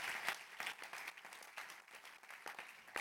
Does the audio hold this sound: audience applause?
yes